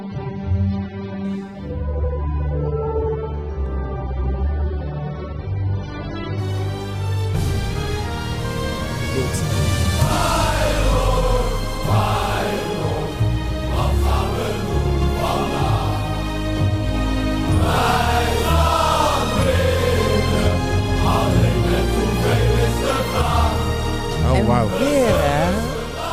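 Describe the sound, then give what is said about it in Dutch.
Orchestral classical music plays on its own, starting softer and narrower, then swelling into a full, loud passage with sustained, vibrato-rich melodic lines over a steady low foundation. “wat is dat wat is dat toch met klassieke muziek?”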